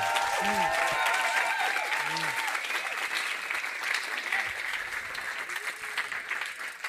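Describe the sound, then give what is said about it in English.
A crowd applauds steadily for several seconds, giving a group of helpers a round of applause, a dense wash of clapping, with faint voices and a few cheers rising briefly near the start before the clapping thins slightly toward the end. “Can we just give these guys a massive round of applause?”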